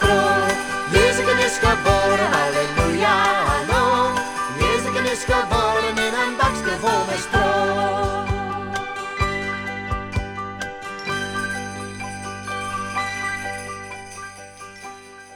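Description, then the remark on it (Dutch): A bright, festive song plays with jingling bells and dense instrumentation, busy at first, then settling into sustained ringing chords that slowly fade toward the end. No one speaks. “moet toegeven, ik was een klein beetje vergeten hoe lang dat, dat nummer is.”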